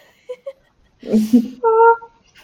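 A person's breathy yawn that starts as a low rush of air and ends in a sustained, high-pitched vocal squeak, with a few faint small mouth sounds before it.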